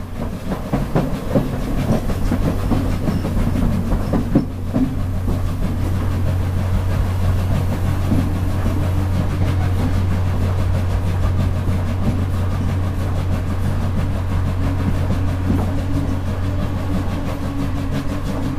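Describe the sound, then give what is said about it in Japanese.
The SL Taiju steam locomotive train rumbles steadily past while crossing the Daiya River (Daiyagawa) railway bridge, a continuous loud low roar with rhythmic clattering of wheels on rails, with a brief sharper knock partway through. “SL大樹 大谷川橋梁を渡れ”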